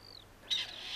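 A grey partridge gives a single harsh, rasping call lasting about half a second, clear, after a faint thin whistle, with no voices.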